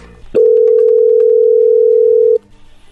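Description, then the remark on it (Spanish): A telephone dial tone as a call is being placed: one loud, steady, low-pitched hum that holds unbroken for about two seconds, then cuts off abruptly. No one speaks. “Bueno, a ver, ahí le vamos a marcarle a ver qué pasa.”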